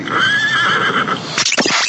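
A horse gives one loud whinny with a shaky, wavering pitch, then ends in a few rough snorting breaths. No one is speaking.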